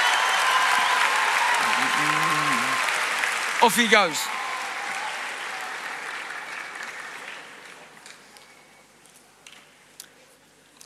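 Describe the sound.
An audience claps in a steady, dense patter that gradually thins and fades away over several seconds, with a man briefly speaking over the applause near its start.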